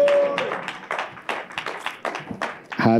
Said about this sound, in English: Clap your hands and shout glory to God